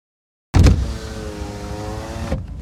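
A car's power window hums open for about two seconds, a steady electric motor whine with a soft thump at start and stop, clear after a brief silence.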